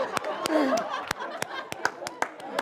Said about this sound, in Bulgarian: Който не пляска, той не е той човек. Виж, сега всички почват да пляскат.